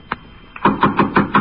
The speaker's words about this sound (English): When I got to the apartment, I could hear someone moving inside. The door was locked, so I knocked.